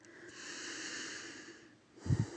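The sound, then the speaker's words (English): A long, airy inhale drawn in steadily through the nose, followed by a brief, heavier puff of exhaled breath at the end, fairly quiet with no talking, during a guided deep-breathing practice. “Continue the breathing putting oxygen in, directing it to the brain in the head.”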